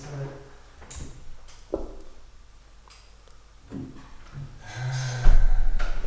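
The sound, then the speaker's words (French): A French window slides on its track with a series of clunks, rattles and scraping knocks, ending in a louder rolling rumble as it is pushed fully open or shut. “ah non, mais la porte-fenêtre.”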